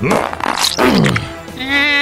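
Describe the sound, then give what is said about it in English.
A loud, comic fart sound effect: a couple of buzzy, tonal blasts in quick succession, ending in a longer, higher-pitched drawn-out squeak, with no talking. “I think the farts are getting to him.”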